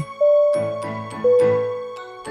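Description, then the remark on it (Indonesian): A two-tone airplane cabin chime, a code used by the cabin crew to communicate, sounds twice in a row, each soft bell-like ding ringing out clearly and fading, with faint cabin hum and clicks around it. “Biasanya kalau bunyi dingnya sekali doang, itu nandain kalau kita bakal ngelewatin awan.”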